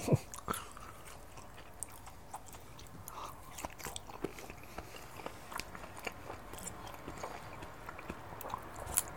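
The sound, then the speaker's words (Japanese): Crisp crunching and chewing of a home-cooked pork belly meal, recorded with a TASCAM DR-07X recorder, with sharp irregular bites and snaps repeating steadily over a quiet background, no voices. “時々、咀嚼音注意”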